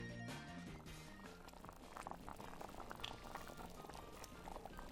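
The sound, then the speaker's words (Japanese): A pot of zosui (rice porridge) simmers and bubbles steadily on the stove in a kitchen, a dense, continuous gurgling that stays at an even level throughout, with a faint tonal hum at the very start. “でっかい犬が台所で料理してる”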